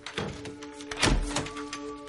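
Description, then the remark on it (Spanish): A back-door latch is slid open by a hand reached through a hole in the door, with a short scraping rattle and a solid thunk midway, over a low, steady background hum with faint tonal lines. “Mete la mano por el agujero y quita el pestillo.”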